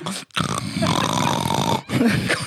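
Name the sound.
person imitating snoring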